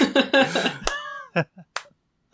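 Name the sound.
clapping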